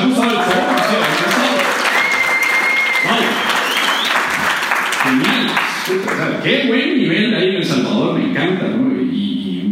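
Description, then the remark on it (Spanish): An audience breaks into loud, sustained applause for everyone who performed that day, a dense wash of clapping that runs steadily throughout, with voices and some cheering mixed in over it. “Por cierto, un aplauso para todos los que han actuado hoy.”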